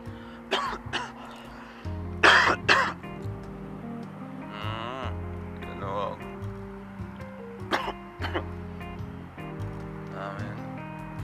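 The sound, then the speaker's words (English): A coughing fit: harsh coughs in several bursts, the loudest pair near the start, followed by scattered coughs later, all over a steady musical background. “Good shit make you cough.”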